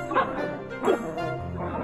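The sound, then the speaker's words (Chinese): A small dog named Diandian yaps three times in short, high-pitched bursts spaced roughly evenly apart, the first two loudest, with no talking over them. “小狗点点也帮忙挑选了，它用摇尾巴来表达。”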